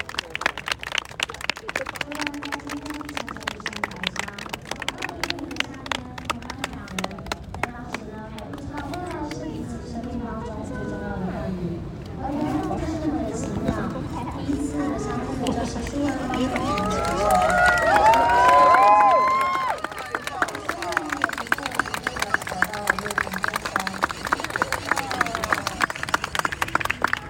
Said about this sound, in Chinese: 然后我们邀请新娘步入备场。 好漂亮哦！ 哦， 哇，超美的 掌声欢迎